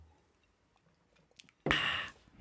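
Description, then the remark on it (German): A few faint clicks in near silence, then one loud slurping sip of Calvados from a glass that lasts about half a second before fading off. “Ja, gut, trinken wir mal einen Schluck Calvados. Calvados. Und ihr hört uns dabei zu.”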